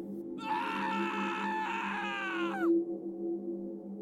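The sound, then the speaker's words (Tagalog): A man lets out a single loud, strained scream lasting about two seconds, ending in a downward slide, over a steady low background hum. “Subalit bigla na namang yubanig ang napakalakas, ngunit maiksing sigaw”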